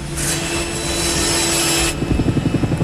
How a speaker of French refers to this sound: Un malfaiteur descend de l'hélico et avec euh, une scie circulaire euh, de haute performance découpe le grillage.